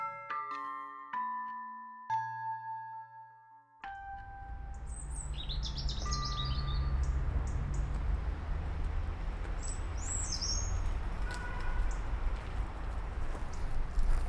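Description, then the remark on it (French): Birdsong from tits, redstarts and blackbirds: scattered high chirps and short phrases over a steady rushing outdoor background, after a few opening chime-like tones. “C'est marrant, hein, t'as des palons, des mélanges, des rouges-queues, des merles.”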